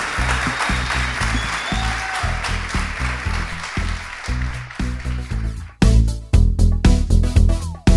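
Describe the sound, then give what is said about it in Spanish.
Audience applause at the close of the video game industry panel at Artec 2019, a dense crackle of clapping over loud rhythmic music with a steady bass beat for the first few seconds. The clapping then fades out and the music carries on by itself. “por las redes seguiremos en contacto con ustedes, así que les pido un fuerte aplauso, muchísimas gracias.”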